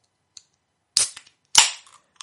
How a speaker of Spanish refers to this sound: Vamos a abrirnos una birra. Eh, no la he abierto antes porque digo, yo creo que es satisfactorio el sonido de la lata, ¿sabes?